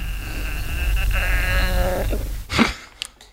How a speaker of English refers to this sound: what was that noise in your I don't know if the microphones picked it up. that was the sound of gas in my throat. Screaming gas.